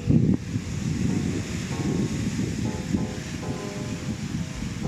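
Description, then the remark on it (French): Continuous roar of ocean surf on the California coast under a sunny blue sky, with surfers in the water; a steady low rumbling wash with wind buffeting the microphone and a brief louder gust at the start; no one speaks. “Et pour terminer la balade du jour, je vous laisse écouter le bruit de l'eau, de l'océan.”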